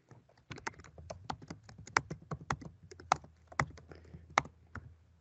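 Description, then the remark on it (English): Rapid keystrokes clatter on a small keyboard, a steady burst of sharp clicks at an uneven rhythm, fairly quiet, with no talking. “With that little keyboard typing.”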